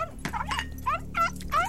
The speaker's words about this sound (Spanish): Mientras estaban en la sala compartiendo una copa de vino y besándose, el perro de Travis comenzó a ladrar.